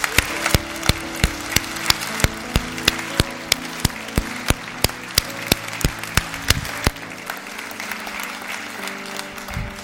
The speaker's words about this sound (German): Komm, wir geben denen, die sich gemeldet haben, einen starken Applaus.